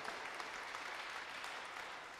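A crowd claps steadily in a dense, sustained wash of many hands, fairly loud and even throughout, with no pauses and no one speaking over it, welcoming a guest speaker, the author of a book on evangelism, introduced by a pastor.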